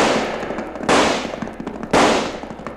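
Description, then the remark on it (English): Two loud, sharp gunshots, fired at a gang shooting into the Charlton house, ring out about a second apart, each trailing off briefly, over a steady crackle of smaller scattered pops and noise. No one speaks. “Nice shooting, O'Bannon.”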